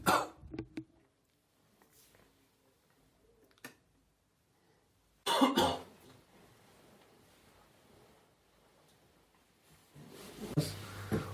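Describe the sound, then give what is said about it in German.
In a room, a person with a mild cold blows, sniffles and coughs: a few breathy bursts break up long stretches of near silence, with a faint hiss lingering after each one and a louder burst at the end. “sprich, wie oft das Ganze hier im Zimmer lauter wurde, dadurch, dass ich gepustet, geschnieft oder gehustet habe. Denn ich bin immer noch leicht erkältet”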